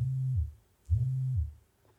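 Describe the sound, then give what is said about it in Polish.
A fitness band's vibration motor buzzes twice in short pulses, each a low, steady hum that drops in pitch as it winds down, clear with no voices. “A, to czy włączysz wibrację, czy będzie słychać w mikrofonie?”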